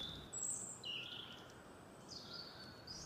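Birds chirp in short, scattered high-pitched bursts over a soft background hiss, with no one speaking.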